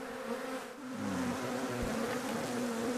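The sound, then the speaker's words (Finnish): A dense, steady drone of many honeybees buzzing at an opened hive during spring hive work, a continuous layered hum that swells slightly after the first second and holds loud throughout, with no talking. “Nyt alkoi aikamoinen pörrääminen.”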